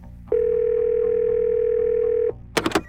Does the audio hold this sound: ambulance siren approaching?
no